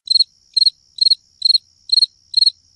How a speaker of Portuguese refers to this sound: Aí eu ponho na edição é, ou silêncio, uou, grilo.